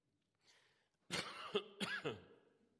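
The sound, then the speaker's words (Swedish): A loud burst of coughing from a preacher getting over a feverish illness: two or three harsh, rough coughs in quick succession, with a breathy intake before them and no talking. “nu hostar jag, men jag tror inte jag smittar någon.”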